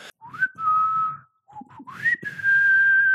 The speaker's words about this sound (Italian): ovviamente non dispongo di tutta quella comodità per poter eh, suonare il mio flauto, ma eh, posso comunque fischiettargli qualcosa, tipo